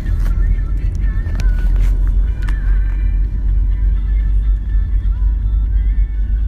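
Steady low engine rumble of a taxi driving on a ride of about 35 minutes, a constant loud drone with faint higher tones and occasional brief clicks over the top, no speech.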